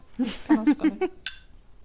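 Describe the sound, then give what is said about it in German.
A short burst of speech, then one bright, ringing clink of glasses touching in a toast, fairly loud, its high chime fading quickly into quiet. “Ja, darauf trinke ich. Prost! So, Prost!”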